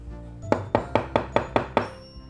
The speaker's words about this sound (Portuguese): Logo em seguida, chegou o terrível lobo mau, batendo na porta.